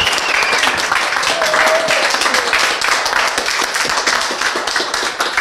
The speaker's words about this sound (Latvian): Es vēlreiz palūdzu aplausus. Paldies, jūs esat lieliski!